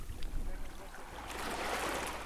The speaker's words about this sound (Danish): Lyden af vand, der skyller op på en bred, kan have en beroligende effekt. Men den kan også i visse kontekster bevæge sig fra beroligende til samtidig at være lyden af en hård migrations- og grænsepolitik.